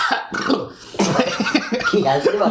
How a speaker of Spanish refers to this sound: una tos, una tos, marido.